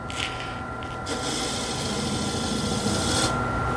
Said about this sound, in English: And we'll slide this thing up here very close. Okay. Lock it down. Start it up. And then sand it off.